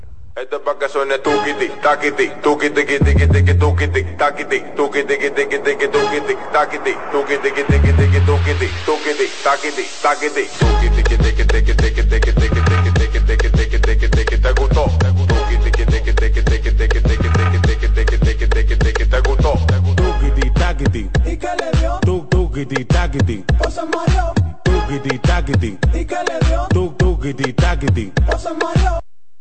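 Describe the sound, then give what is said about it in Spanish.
A loud, upbeat radio jingle, the traditional "tuquiti taquiti" of the Mañana Deportiva sports segment, runs for about thirty seconds, driven by heavy, pulsing bass beats beneath bright, busy synth and vocal layers, keeping a steady energetic rhythm. “Bien, ahí escucharon el tradicional tuquiti taquiti de este su espacio mañana deportiva, esperando que los niños como siempre, como, como siempre se lo gocen, ¿eh?”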